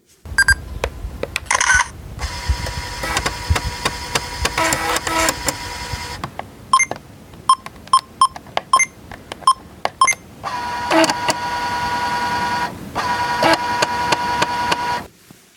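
Busy mechanical sounds of a camera operating: bursts of motorized whirring, then a rapid series of sharp clicks and short beeps, ending with a longer steady buzzing run. No voices.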